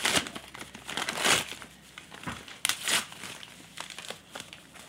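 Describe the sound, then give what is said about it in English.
Crisp crinkling of wrapping paper as a woman pulls open a gift of glassware, with irregular bursts of rustling and crackling that swell and fade over several seconds, no voices present. “She's unwrapping. This it's is not like mouth noises.”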